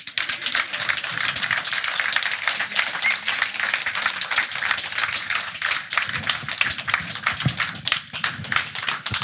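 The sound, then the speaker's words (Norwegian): A steady wash of audience applause welcoming crime author Hans Olav Lahlum, dense overlapping clapping from a crowd that holds at a fairly loud level throughout without fading, with no voices standing out above it. “Pleier jeg å si når applausen dør ut uansett.”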